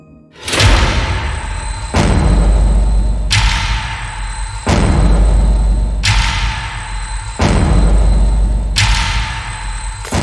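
A series of heavy, booming explosion blasts in a shopping mall, shattering glass windows, about seven in a row at a steady pace, each one loud with a deep rumbling tail that barely fades before the next hit.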